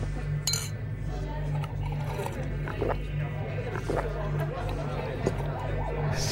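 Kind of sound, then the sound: crowd, crowd chatter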